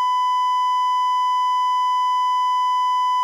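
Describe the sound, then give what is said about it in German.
A single steady censor bleep, a flat high-pitched electronic tone held at constant loudness for about three seconds, with no voices or other sounds around it. “Kannst schnell piepsen.”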